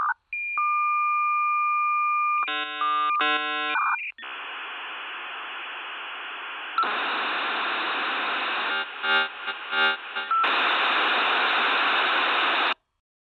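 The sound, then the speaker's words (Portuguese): Shrill digital tones over a phone line, heard by a caller after the ringing tone changes into a digital sound: steady beeps, a rapid warbling burst of chirps, then long hissing, screeching static that shifts pitch and stutters before cutting off abruptly to silence, like an old dial-up modem handshake. “O barulho de chamando continua por alguns instantes, ele começa a mudar, começa a deixar de ser um barulho de chamando ele começa a virar um barulho meio, meio digital, meio tecnológico.”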